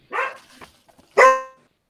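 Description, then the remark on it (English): A dog barks twice, loud: a short rough bark, a brief pause, then a sharper, more tonal bark that trails off into quiet. “but dog had an answer, I thought, but two barks if it's a, a gold star gay.”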